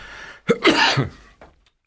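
A close, short coughing fit: a sharp explosive burst, then a longer rasping cough, with a softer final cough trailing off into quiet. No one speaks.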